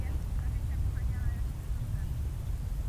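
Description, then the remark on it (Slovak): A car rumbles faintly, a low steady drone filling the background, with a few small high chirps scattered over it. “Tam je z nejaké auto.”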